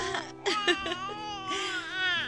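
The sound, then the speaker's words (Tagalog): A newborn baby cries in sustained, wavering wails with brief catches of breath between them, loud and high-pitched, with no talking over it. “May baby na tayo, Lerma. Shh, baby.”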